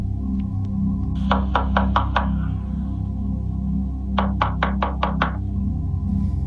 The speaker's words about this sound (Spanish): Y por si fuera poco, alguien empezó a llamar a su puerta.